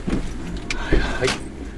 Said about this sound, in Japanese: ちょっとお待ちくださいね今あのー、数字を細かく見るには、えー、車を止めて見ないといけないので、えー、その今ファミリーマートの駐車場に到着したら今到着しましたはい